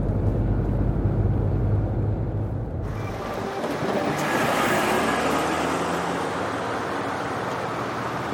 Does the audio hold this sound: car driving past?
yes